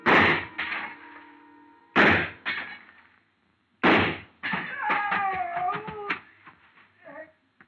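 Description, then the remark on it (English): Three sharp, loud gunshots go off a couple of seconds apart at a man standing on a glass showcase in a store, each followed by a ringing, crashing tail of the showcase glass breaking. Some wavering, whining tones trail after the last one. “I started deliberately shooting his foothold out from under him.”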